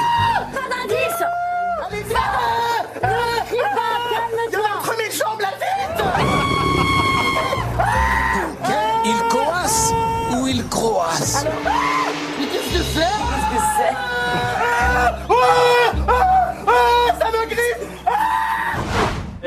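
A person screams in panic on the TV show Fort Boyard while in a bath with mice, rats, toads and grass snakes, loud, with long repeated shrieks and wailing cries that rise and fall almost without pause for about twenty seconds.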